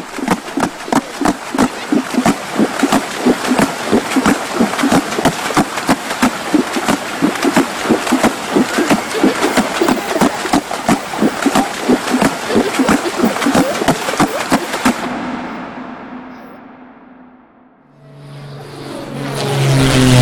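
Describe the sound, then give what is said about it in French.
Women in Vanuatu slapping and beating the surface of water with their hands to make water music: rapid, steady, rhythmic splashing thumps for about fifteen seconds, then the beat stops and a swelling whooshing sound takes over. “En frappant l'eau dans leurs mains, les femmes créent une musique tout à fait originale.”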